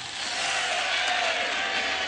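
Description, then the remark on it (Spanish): A crowd applauds the priests steadily, a dense wash of clapping that holds at an even, fairly loud level throughout, with no voices standing out. “La gente aplaude a los sacerdotes.”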